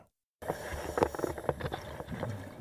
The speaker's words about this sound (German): Das war ein Taucher. Ah ja! Ach, Oder eine Gott. Taucherin. Wer weiß, wer weiß, wer da drin gesteckt hat. Ne? Wer weiß, wer da uns vorgeatmet hat.